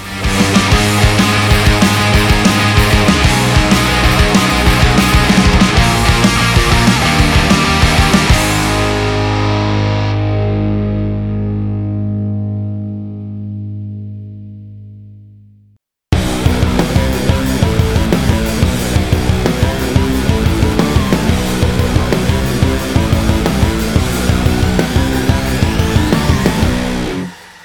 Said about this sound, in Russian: сейчас для вас звучит группа … с треком «…»